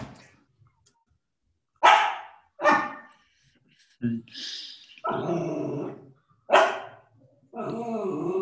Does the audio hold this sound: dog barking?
yes